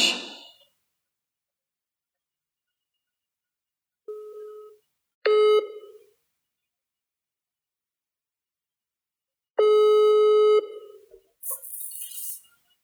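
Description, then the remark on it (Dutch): The ringing tone of an outgoing call placed online: three steady, mid-pitched electronic tones at uneven intervals, the last held longer, then a short burst of hissy noise. No one speaks. “dus dan hou ik mij stil en dan kun jij haar gaan bellen, denk ik.”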